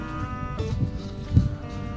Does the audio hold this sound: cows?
yes